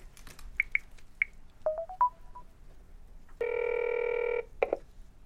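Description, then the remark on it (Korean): A few quick, clear keypad tones of a phone being dialed to call an elderly woman's son, then a single steady ringing tone for about a second, followed by a couple of short beeps. No one speaks. “빨리 우리 아들한테 전화 좀 해줘.”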